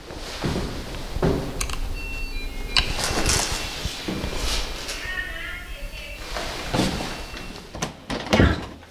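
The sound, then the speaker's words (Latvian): A doorbell chimes briefly at a second-floor apartment in a multi-storey residential building in Riga, Latvia, then clunks and rattles follow as the apartment door is unlocked and swung open, with faint movement and muffled voices around it. “Tur zvanu pie durvīm.”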